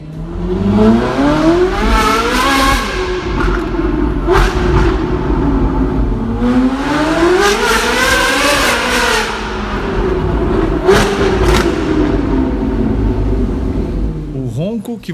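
The naturally aspirated V8 engine of a Ferrari 458 Italia revs loudly, its high-pitched wail climbing and falling through several long sweeps before a short blip at the end.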